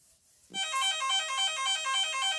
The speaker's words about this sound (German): ich weiß nicht, ob ihr das gehört habt, aber es hat gerade geklingelt.